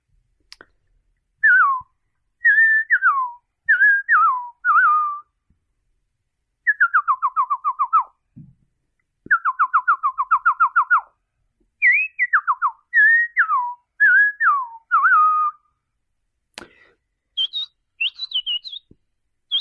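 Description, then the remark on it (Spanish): A person whistles a lively imitation of the songs of the sensontle (mockingbird) and the coachichi, birds still heard in the local community, accompanying a poem: repeated bursts of chirps, trills and rapid descending notes in several phrases, clear, with short pauses between, no talking. “que me enseñó mi abuelo a, imitar, que es el canto del sensontle y el canto del coachichi, que todavía son aves que se escuchan aquí en la comunidad.”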